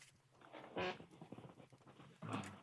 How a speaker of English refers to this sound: I like that a chair just made a fart noise.